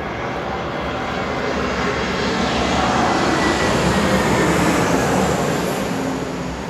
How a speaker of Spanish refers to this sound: Deja que pase el avión.